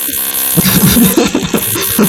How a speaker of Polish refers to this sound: bo ktoś remont robi, świetnie, świetnie.